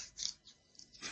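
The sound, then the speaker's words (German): Soft, wet squelching of lotion being rubbed between hands, a few quick smacking bursts in a row, quiet, with no talking. “Ich hoffe, es sind deine Hände, die du gerade einschmierst.”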